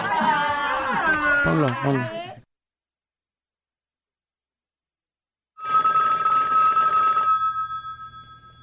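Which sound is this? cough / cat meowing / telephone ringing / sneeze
telephone ringing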